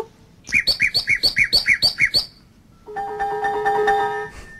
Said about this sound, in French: Et voici le rossignol. Il éclate tout d'un coup, brusquement la seconde strophe, ce sont des batteries sur deux sons très célèbres.